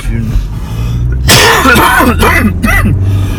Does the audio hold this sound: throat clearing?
yes